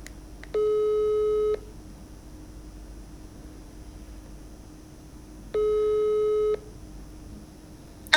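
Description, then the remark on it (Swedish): A phone ringback tone from a call to a younger brother sounds twice, each steady electronic burst lasting about a second with a long silent gap between, over a faint background hiss. “Eh, så jag tänkte att vi, vi ringer upp han.”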